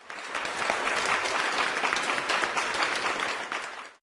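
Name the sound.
applause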